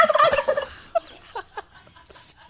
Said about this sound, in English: that is not a gobble moment. Don't hit the gobble button.